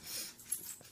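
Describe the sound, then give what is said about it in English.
A dog pants and snorts, a quick run of breathy, hissing huffs with a brief sharper snort partway through. Fairly quiet, with no talking. “And I am sorry about my dog.”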